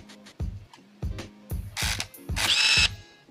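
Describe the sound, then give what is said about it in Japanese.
A series of short mechanical whirs and clicks from a film camera's shutter and lens mechanism, indoors, repeats roughly every half second at moderate loudness. A couple of brighter buzzy bursts come near the end as the strobe flash fires automatically and the film winds on automatically after the shutter is released. “ほうほうこれが今シャあーシはいャッターを開いた音です、はいはいはいレンズのねはい。”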